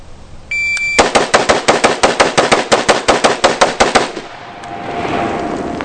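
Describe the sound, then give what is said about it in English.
A shot-timer beep, then a rapid, steady string of about sixteen loud AR-15 rifle shots fired in a V drill on a shooting range over three seconds, followed by a fading, hissy echo. “I, I, have it here where he shoots the V drill with the AR-15.”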